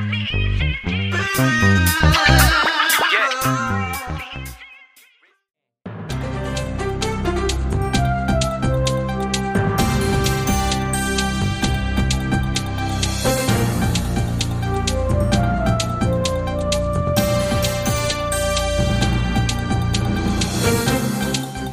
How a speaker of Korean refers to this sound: 그리고 일단 노래 듣고 올게요.